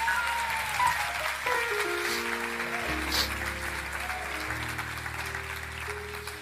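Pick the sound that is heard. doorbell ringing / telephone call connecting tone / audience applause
audience applause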